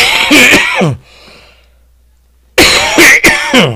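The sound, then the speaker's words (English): Loud, close-up coughing right into the microphone: a harsh burst, a second of near silence, then another cluster of sharp, rough coughs that overload the sound. “Didn't mean to cough so loud in the microphone.”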